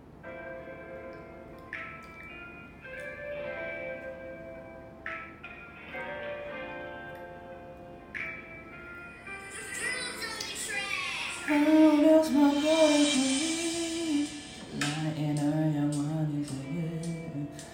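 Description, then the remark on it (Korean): An instrumental beat for a song's hook: bright, bell-like plucked notes ring out in a repeating pattern, then a fuller, louder melodic layer with gliding tones enters halfway through. “그때는 비트를 안 들, 베리 때는 비트를 안 들려드리고 했었는데 지금 잠깐 들려드릴게요. 훅 부분만.”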